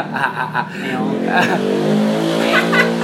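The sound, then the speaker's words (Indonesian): A motorcycle engine drones loudly, its pitch shifting steadily as it passes, with a few brief voices at the start. “anjing motor”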